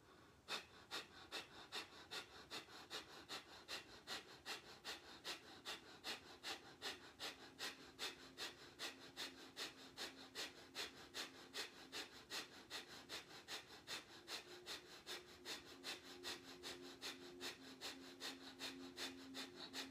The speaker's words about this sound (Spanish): Entonces cierra los ojos, concéntrate en tu respiración nada más, escucha el sonido de la respiración. Comenzamos con respiración de fuego.